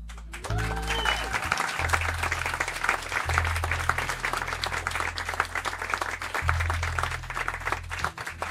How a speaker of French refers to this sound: S'il vous plaît, faites un énorme bruit pour Monsieur …